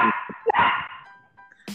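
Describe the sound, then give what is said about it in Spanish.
A small dog barks several times in quick succession, sharp, with short yappy bursts followed by a brief whine and one last bark. “Ah, es que el perrito está molesto por el álbum.”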